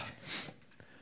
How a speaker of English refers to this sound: Sorry about that. That's awkward for everybody. Uh, um, and now I'm going to be sniffling the whole time. Ugh.